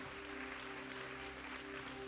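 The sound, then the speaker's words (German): An audience at a church service applauds in a steady, dense wash of clapping that continues unbroken throughout, sounding soft, with a faint low hum underneath. “Lass uns hier mal einen Applaus geben.”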